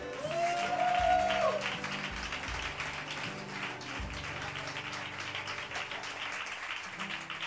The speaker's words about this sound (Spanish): Un fuerte aplauso a Merichel Molinos.